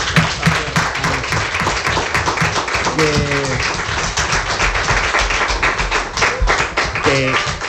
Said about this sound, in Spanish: Oye, chicos, eh, le dedicamos este fuerte aplauso al papá y al, y al pequeño, ¿eh? Venga.